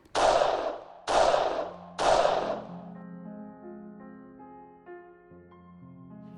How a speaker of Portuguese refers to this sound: Assim como a Gang Barrel tinha feito diversas vezes, os policiais abriram fogo contra o carro do casal.